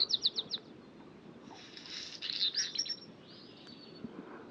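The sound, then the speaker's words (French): A black redstart sings at dawn, around 4:45, in alpine pastures on the Col du Granon above Briançon, Hautes-Alpes, at 2400 m altitude under a clear sky at about 5 °C: a quick run of four high, clipped notes, then a scratchy, crackling phrase and a softer trailing buzz, over a steady low rumble. “On vient de débuter avec le rouge que noir.”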